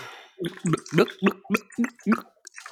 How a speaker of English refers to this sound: Let me take a refreshing sip of water. that is good H2O.